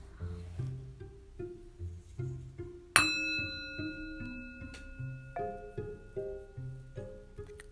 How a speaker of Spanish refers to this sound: Y cuando suene la campana, entonces en ese momento te vas a levantar otra vez, pero muy lentamente.